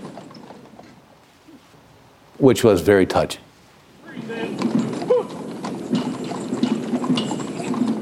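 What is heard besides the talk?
horse hooves clip-clopping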